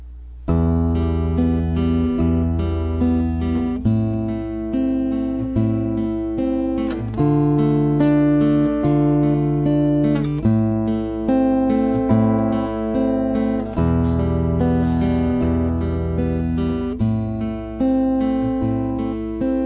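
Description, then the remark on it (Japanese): A song whose theme is passion plays with sustained, layered chords shifting every couple of seconds at a steady, fairly loud level; no singing or talking is heard. “はいではですねあの情念をテーマにした歌でございます”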